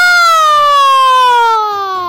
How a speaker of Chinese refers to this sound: 可是田老师刚刚念了两句话，我就又打了一个长长的哈欠。啊！